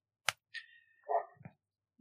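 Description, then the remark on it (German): A dog barks a few times, short sharp yaps followed by a drawn-out whiny yelp, with brief silent gaps between the sounds. “Ich muss wegen diesem Köter ab und zu Pause machen, ne?”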